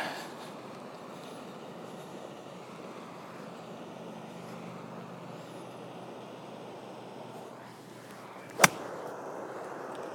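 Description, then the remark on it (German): A single sharp, crisp crack of a golf club striking the ball from high grass, laying it up over water, rings out near the end. It is loud against a steady outdoor background hum, with no talking. “Das war auch kein guter Schwung, aber der Schlag ist okay.”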